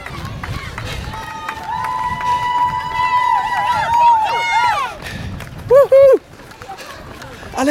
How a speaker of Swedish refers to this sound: Du, här kommer, här kommer varvets bästa hejarkö!